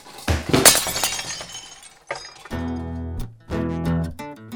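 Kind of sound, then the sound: impact, glass door shattering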